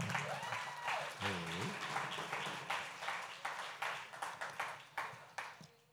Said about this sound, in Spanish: No, un aplauso para ellos.